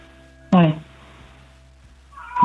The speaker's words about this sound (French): Tiens, il y a un petit chat derrière. Oui, oui. c'est l'heure de, c'est l'heure de lui donner à manger. J'ai l'impression qu'il réclame.